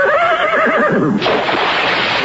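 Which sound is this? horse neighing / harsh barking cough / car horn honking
horse neighing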